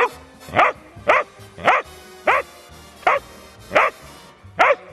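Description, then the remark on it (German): A trained dog at Filmpark Babelsberg barks seven times on command to say goodbye, in a steady, evenly spaced rhythm, each bark short and loud, with no talking in between. “Mag sich der Hund auch noch verabschieden?”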